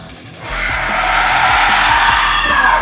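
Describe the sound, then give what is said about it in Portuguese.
A harsh, monstrous scream from a creature rising and arching fully after being shot erupts after a brief pause and holds loud and steady for a couple of seconds, a raw, strained howl with no talking. “Aqueles buracos vão se fechando, aquelas balas vão sendo cuspidas enquanto ele vai levantando até se arquear completamente, gritando.”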